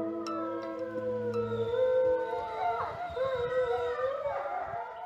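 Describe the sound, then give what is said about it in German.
Several wolves howl together in a chorus, long drawn-out wails overlapping and sliding up and down in pitch, steady and fairly loud throughout with no talking. “Was wir hier gerade hörten, war hoffentlich ein Triumphgeheul.”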